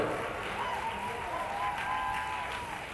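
Steady crowd applause fills the whole stretch, a dense wash of many hands clapping at a fairly even level, with a faint high whistle or tone drifting through the middle.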